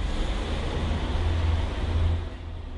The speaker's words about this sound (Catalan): S'afanya cap a la porta del conductor, puja a la furgoneta i s'allunya tot drap carrer avall.